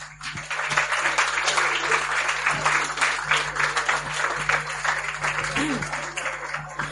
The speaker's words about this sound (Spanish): Un aplauso para todos vosotros, por favor.